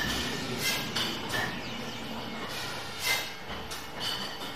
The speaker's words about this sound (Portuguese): Aqui já estamos em pleno processo de engarrafamento na Pico Wines, a adega cooperativa do Pico.